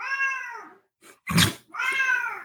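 A cat meows loudly: two long, drawn-out meows with a brief harsh, noisy burst between them. No one speaks.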